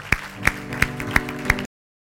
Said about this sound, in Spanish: Aleluya. Aleluya. Un aplauso al Señor esta noche.